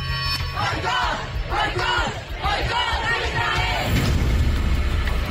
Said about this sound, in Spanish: En la capital española se escucharon consignas como no es una guerra, es un genocidio, era un hospital, no una base militar.